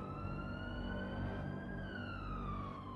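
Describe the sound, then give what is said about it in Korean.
An ambulance siren wails continuously with a slowly sliding, sustained tone, heard from outside a home after a fire broke out upstairs, over low traffic rumble for the whole stretch, with no one speaking. “타는 냄새도 나고 구급차 소리까지 들려오고 있었다.”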